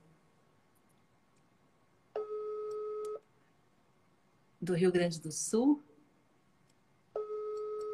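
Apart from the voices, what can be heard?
telephone call tone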